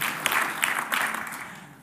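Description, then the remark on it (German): A crowd breaks into steady applause for Jesus, a dense wash of many hands clapping at once that holds for a moment and then gradually fades. “Wir könnten einmal diesem Jesus einen Applaus geben und sagen, danke, du kommst als Treuer der zu mir treu war.”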